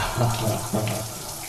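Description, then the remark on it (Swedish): Water from a shower runs in a steady hiss, with a faint low murmur underneath and no clear speech. “Oh, nu ska det bli skönt med en dusch.”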